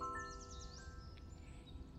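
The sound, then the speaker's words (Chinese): A small dark grey nightingale on a tree branch sings a quick run of high, rising whistled sweeps, followed by thinner trailing notes, all fairly soft over a steady low rumble with no talking. “小女孩喊道：“ 听，它就在那里。”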